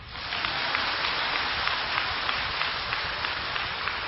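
A crowd applauds steadily, many hands clapping in a dense, sustained wash of crackling claps with no voices, holding an even loudness throughout.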